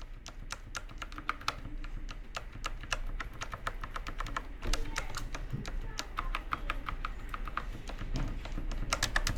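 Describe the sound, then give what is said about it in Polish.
Steady, fast typing during normal work on a mechanical keyboard with non-clicky switches, with dense irregular clacks running continuously throughout, moderately loud, with no one speaking. “Ona sama sobie nie jest taka głośna, bo przy normalnej pracy brzmi to mniej więcej tak.”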